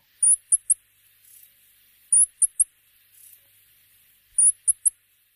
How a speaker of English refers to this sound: Both birds have very high pitched calls, which don't work well on radio, but here's a rock wren call just to give you a quick sense.